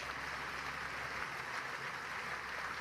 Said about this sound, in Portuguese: Quantos podem dizer amém e dar um aplauso bem forte ao Senhor nesta noite?